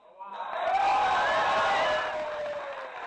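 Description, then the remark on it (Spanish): A crowd bursts into applause mixed with cheering voices after a speech, swelling quickly and holding steady for a few seconds before easing slightly. “Un aplauso.”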